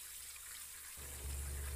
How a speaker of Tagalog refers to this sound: Rinig niya ang talamsik ng tubig na mula sa shower. Maging ang gripo ay bukas.